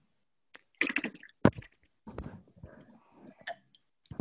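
A crisp bite into a fresh apple, followed by several wet, crunchy chewing sounds, irregular and fairly quiet, with no one talking.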